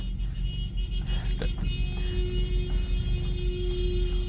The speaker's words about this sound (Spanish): Este podcast hoy, sí que ha tenido bocinazos en, la grabación, me disculpan.